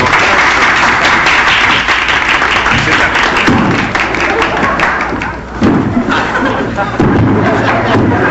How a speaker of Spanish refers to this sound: Aplauso, por favor, aplauso.